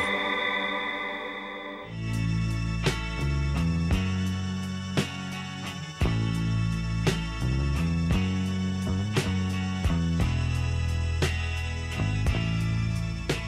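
After a brief hazy intro, a full-band rock song from the soundtrack of the film Licorice Pizza kicks in with effects-laden, distorted guitar, a steady thumping beat and crisp percussion hits, playing loud and up front with no talking.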